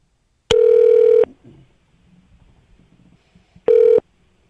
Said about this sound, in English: Uh, and the phone rang.